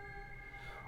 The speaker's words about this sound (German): ja, ihr hört es gerade im Hintergrund, Thema Auto. äh, genau so ist es nämlich hier, äh, wenn man hier Auto fährt, äh, viel Gehupe ähm, und äh, auch nicht ganz einfach so zu fahren auf der Straße.